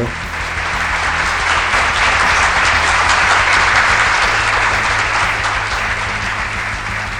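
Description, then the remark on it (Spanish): A steady burst of applause from a crowd, played as a sound effect for a guest: dense clapping that holds at a constant, fairly loud level for several seconds, with a low hum underneath and no voices. “Ahí se pone aplausos para él también.”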